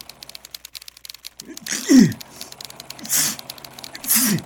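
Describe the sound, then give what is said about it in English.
A rapid typewriter-like clatter gives way to a series of loud sneezes from a sports writer with flu, roughly three in quick succession, each a voiced burst ending in a sharp breathy hiss. “Gesundheit.”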